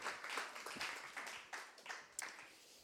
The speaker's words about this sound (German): wir geben ihr einen herzlichen Applaus, sie nimmt uns heute mit rein, ähm, ins Idealbild in unserem Leben.